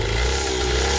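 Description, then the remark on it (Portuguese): A small 50cc two-stroke moped engine revs steadily and loudly, a buzzy, continuous drone with no pauses and no voices. “É um motorzinho de 50 cilindrada, dois tempos”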